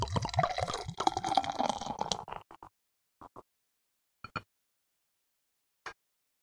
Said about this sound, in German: Gut, ich schenke es mal ein.